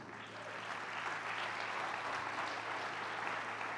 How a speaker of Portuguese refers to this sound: Vamos dar um aplauso a Deus pelos casais, gente.